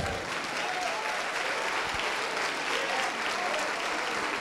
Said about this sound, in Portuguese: Vamos aplaudir, vamos aplaudir. Aplaude, aplaude, porque aconteceu o maior milagre da terra.